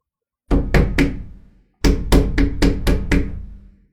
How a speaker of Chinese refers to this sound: 窗户那边响起了巨大的砸窗户的声音，我赶紧回头一看，窗户上印了一个非常清楚的掌印。